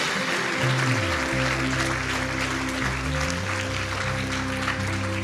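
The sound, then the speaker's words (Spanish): A church audience breaks into sustained, loud applause for the Lord lasting several seconds, dense clapping spread evenly throughout, with steady low organ or keyboard tones sustained underneath. “Dale un aplauso fuerte a nuestro Señor.”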